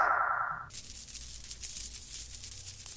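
A brief ringing tone gives way to a steady shower of bright metallic jingling, like a pile of coins clinking and pouring together, loud for a couple of seconds.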